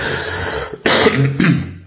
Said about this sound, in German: Wenn ich übrigens ein bisschen am Husten, am Rotzen bin, muss ich mich entschuldigen.